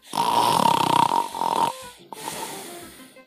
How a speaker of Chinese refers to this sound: 小老鼠们拔它的胡子，挠它的脚心，使劲儿的吹喇叭，鼹鼠爸爸的鼾声依然震天响。